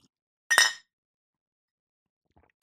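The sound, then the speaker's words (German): Two ceramic tea cups clink together once in a bright, ringing toast that fades quickly, followed by near silence and a faint later tap. “Prost, ihr Schnuffelhühnchen.”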